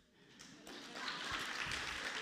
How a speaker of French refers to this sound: Qui c'est qui, va, qui commence par courir une demi-heure Oh On peut applaudir.